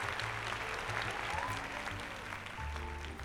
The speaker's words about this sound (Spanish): De pues hecho, te voy a dar un aplauso, güey, porque...